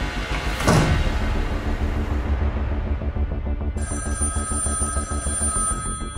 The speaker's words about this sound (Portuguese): A 600 quilómetros dali, os telefones também não param.